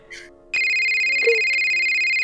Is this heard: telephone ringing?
yes